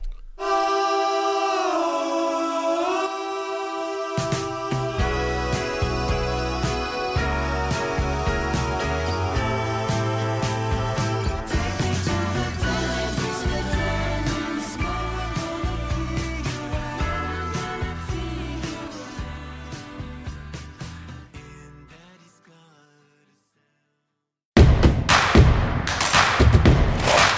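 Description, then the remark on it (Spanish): A pop song composed with algorithms and robots: sustained chords open, then bass and a steady beat join, carrying a bright, busy arrangement before fading out. After a short silence, a louder burst of different music starts. “es una canción hecha eh, con algoritmos y robots.”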